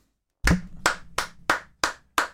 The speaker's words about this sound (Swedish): En spontan applåd